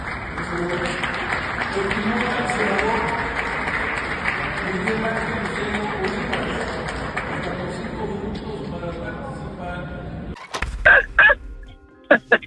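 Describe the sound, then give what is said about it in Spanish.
Sustained applause from a large crowd fills a Senate chamber for about ten seconds, mixed with murmuring, then stops abruptly as a voice begins speaking. “Ni los aplausos despertaron a la, a la senadora Soledad”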